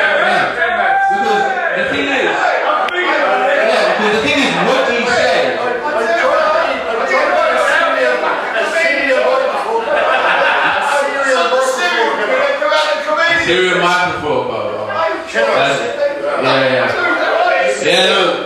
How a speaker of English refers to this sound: it just sounds like a man mumbling whilst everybody else shouts because he's just mumbling on a microphone